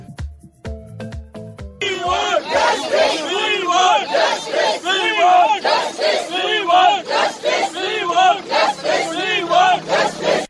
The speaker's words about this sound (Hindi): ये आवाज है हैदराबाद की सड़कों पर उतरे लोगों की जो एक महिला वेटनरी डॉक्टर की हत्या और फिर उसे जला दिए जाने के मामले में न्याय दिलाने की मांग कर रहे हैं